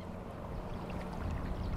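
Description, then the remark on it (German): Steady low lapping and sloshing of harbour water around the gently rocking boat of old fisherman Dirk Sanders in the harbour at Nesmersil, a continuous soft wash with faint gurgles, no voices. “In Nesmersil schaukelt derweil Dirk Sanders Boot sanft auf dem Hafenwasser.”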